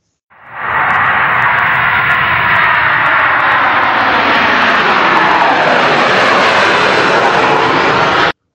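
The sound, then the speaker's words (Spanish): An airplane's engines roar up loudly and steadily, a broad rushing drone that builds in pitch as the aircraft powers up for takeoff on a flight to the Bahamas, heard alone with no voices. “Arrancamos motores y despegamos rumbo a Bahamas.”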